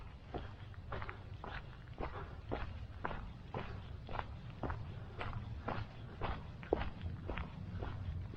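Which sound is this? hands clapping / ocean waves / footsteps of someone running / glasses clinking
footsteps of someone running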